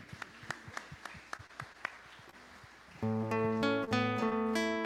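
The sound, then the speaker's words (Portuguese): A few hands clap sharply in an uneven rhythm over a low hum, then loud, sustained musical tones from a keyboard-like instrument take over for the last two seconds. “palmas.”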